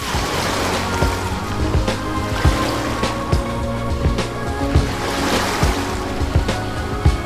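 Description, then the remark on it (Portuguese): A steady motor drone with water rushing and splashing against the hull as a boat carries the Rádio Gaúcha reporting team across a lagoon from the Vila Náutica of Lagoa Country Club in Cidreira to the lençóis, continuous and fairly loud, with no one speaking. “A equipe de reportagem da Rádio Gaúcha foi por água até os lençóis.”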